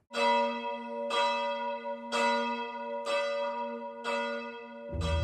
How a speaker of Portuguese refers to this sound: Recentemente, no dia 2 de cada mês, os sinos da Torre dos Clérigos começavam a tocar à meia-noite, sem ninguém lhes mexer. E ainda por cima, a um ritmo inesperado. Primeiro, sete badaladas. A seguir, pausa. E depois, mais seis badaladas.